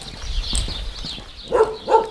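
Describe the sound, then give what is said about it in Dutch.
Two short dog barks come near the end, preceded by scattered scuffling and pattering sounds of three dogs moving about on a hard floor, with no talking. “Hoeveel honden lopen hier rond?”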